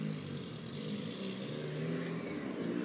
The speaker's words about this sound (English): Yeah, I apologize. I apologize for the cars.